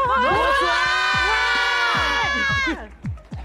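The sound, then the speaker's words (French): A large live audience shouts together with the host in one loud, sustained, many-voiced cry lasting nearly three seconds over steady low thumps, then breaks off abruptly into a few scattered voices. “vous devez crier avec moi.”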